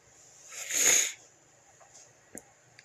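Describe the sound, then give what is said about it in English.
A single breathy sniffle from a person moved to tears by a Christmas song swells and fades over about half a second, followed by a couple of faint small clicks in otherwise quiet surroundings. “Uh, I'm sniffling because I just listened to a Christmas song and it freaking brought me to tears.”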